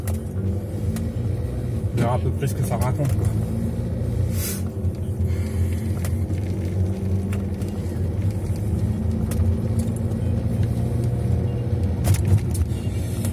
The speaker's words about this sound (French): Allez c'est parti, on fait un petit tour en roulant, comme ça vous verrez ce que ça donne. Bon c'est une autre voiture, hein, mais bon,